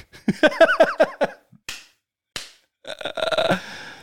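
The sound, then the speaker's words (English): Two sharp, snapping whip-crack sound effects ring out a moment apart, each short and bright, set between bursts of lively, voice-like sound before and after. “add a whip sound to that.”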